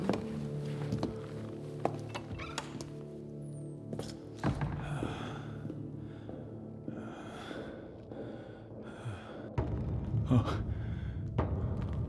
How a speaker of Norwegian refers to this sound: Hvem er det som banker? Oh, nå går det av meg. Hver en lyd jeg hører, skremmer meg.